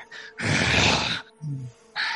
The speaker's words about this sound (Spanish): Empiezo a respirar más fuerte. Sonidos guturales empiezan a salir.